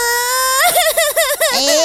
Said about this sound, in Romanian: nu mai plânge!